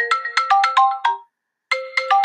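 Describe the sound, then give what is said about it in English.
A phone ringtone plays a quick, chiming melodic phrase of bright repeated notes, pauses briefly, then starts the phrase again; loud, with no voices. “Ah, my phone.”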